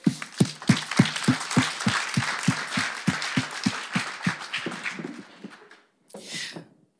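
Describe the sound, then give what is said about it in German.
An audience applauds to welcome two guests, a dense wash of clapping with a steady rhythmic beat of claps running through it, fading out after about five seconds before a brief burst of noise. “Das ist euer Applaus.”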